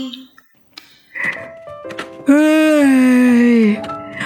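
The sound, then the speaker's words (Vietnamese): A sung Vietnamese alarm clock ringtone telling the listener to wake up: a few short voiced notes, then one loud, long held note that sinks slightly in pitch before cutting off, clear. “trời đất ơi không hiểu sao mà mình tự đi đặt cái chuông báo thức mà nó hát dễ sợ thiệt chứ đúng là tự hại mình mà cũng hợp lý có nhạc chuông hát dở vậy có muốn tắt đi ngủ tiếp cũng không được”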